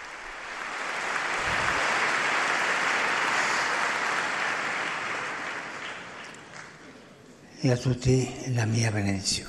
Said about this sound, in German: Und wir geben ihnen noch einen, einen großen Applaus und bedanken uns auf diese Art und Weise bei ihnen.